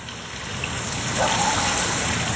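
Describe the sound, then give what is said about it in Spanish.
A steady, continuous rush of flowing water, like a stream or running tap, holding an even, moderate level throughout with a soft hiss and no voices. “Agua, ¿quieres decir lo último?”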